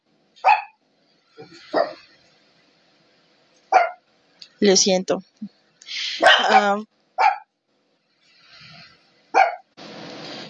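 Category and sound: animal, small dogs barking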